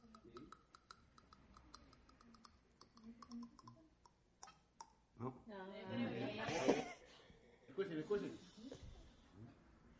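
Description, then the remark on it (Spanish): A father drums quick, rhythmic, crisp tapping on a pencil played like a percussion instrument for several seconds, then people laugh and talk over the end. “Y tuve, ay, yo me gocé cuando me trajo el video de su papá tocando el lápiz y lo tengo ahí para que usted vea que, hermano, él toca el lápiz.”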